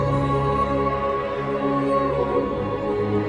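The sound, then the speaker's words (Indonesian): The 2002 World Cup anthem song plays back steadily at moderate volume, with full, sustained harmonic chords and no talking over it for the few seconds heard. “Oh, suara ini lagunya anthem gitu ya.”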